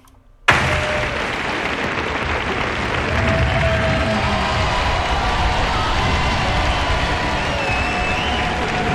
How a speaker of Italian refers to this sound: Doverosi applausi, doverosi applausi per Ficarra e Picone che stanno iniziando il loro clip, il loro sketch.